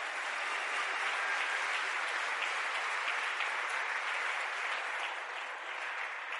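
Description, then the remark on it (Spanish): An audience at a church service applauding loudly to give glory to the Lord, a dense, steady roar of many hands clapping that holds at an even level for several seconds without pause or voices. “Vamos, ese aplauso fuerte, de eso se trata.”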